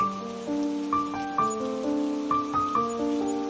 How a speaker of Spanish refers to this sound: El viento sopló un poco más fuerte y la lluvia se hizo presente.